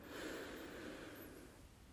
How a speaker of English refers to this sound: So you're going to breathe in, sip in a little bit more, all through the nose on the inhale, and then long, slow exhale, either nose or mouth. Couple more like that, breathing in through the nose, filling up Slight pause, sip in a little bit more,